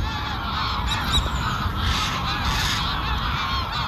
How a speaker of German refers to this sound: Mal sind es aufgebracht schnatternde Vögel